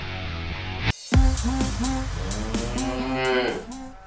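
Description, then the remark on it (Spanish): A cow gives one long, loud moo that wavers in pitch for about three seconds, following a brief burst of other sound and a sudden cut to silence. “Es que, esa vaca nos confunde, ya no sabemos si es.”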